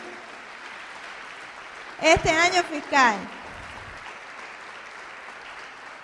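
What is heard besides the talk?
audience applause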